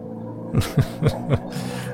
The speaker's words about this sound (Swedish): Lyssna på ljudet i motorn alltså